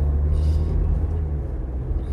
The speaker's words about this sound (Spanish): se me acaba de meter un carro al frente.